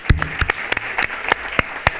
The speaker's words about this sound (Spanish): Es grande, Rob Bauman. Un aplauso para Rob Bowman, eh. Vamos.